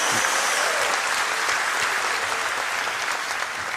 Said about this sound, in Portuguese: Se tem alguém entendendo isso, dá uma salva de palmas ao Senhor, dá um glória a Deus em nome de Jesus.